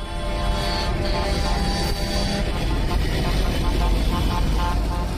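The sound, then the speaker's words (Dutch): A loud, continuous mass of car horns blares together, overlapping and sustained over a rumbling wash of traffic and street noise, with no break for the whole stretch. “Daar komen de klaksons weer.”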